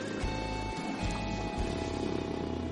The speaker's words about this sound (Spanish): Como sabéis, grabo en el coche y ahora mismo está lloviendo. Así que como está lloviendo, aparte del típico repiqueteo de la lluvia sobre el parabrisas, pues también podréis estar escuchando cómo el limpia parabrisas va haciendo su trabajo.